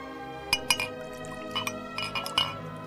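Several full jenever glasses clink together in a farewell toast, with bright, ringing chinks at irregular intervals, some in quick pairs, over a faint background murmur and a soft slosh of liquid.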